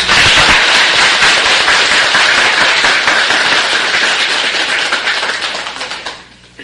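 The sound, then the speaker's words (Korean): A crowd claps steadily, a dense, loud patter of many hands that holds for several seconds before thinning out and fading at the end, with no voices. “우리는 어, 이분들의 머지않은 장래에 반드시 조국을 찾아서 자주 독립을 하고 영원한 행복이 깃들기를 바라는 뜻으로 박수를 쳐드립시다.”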